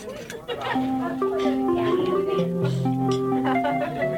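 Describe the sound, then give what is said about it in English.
Busy restaurant ambience: a steady, crowded wash of overlapping chatter with faint clinks of dishes and a few sustained tones running through it, loud and continuous throughout. “Let's go to a restaurant.”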